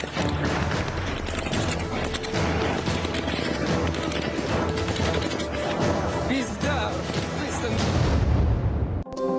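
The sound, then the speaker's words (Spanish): Repeated sharp gunshots fired into the air and heavier blasts from stun grenades and gas grenades crack through a dense, noisy crowd at a protest, with shouting voices and constant commotion filling the background. “Según Rusia, los disparos fueron al aire, no contra civiles. Además, utilizaron granadas aturdidoras y de gas.”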